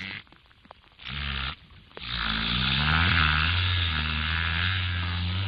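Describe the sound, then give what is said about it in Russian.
An orca imitates a boat engine: a short rough rumble, a pause, then a loud sustained buzzing drone whose pitch wavers and climbs, much like a motor starting up. “Да, если касатку сейчас у нас э, которая получится, имитирует, э, там, которая имитирует... Э, звук лодочного двигателя.”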